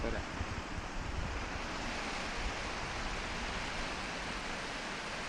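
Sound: river water flowing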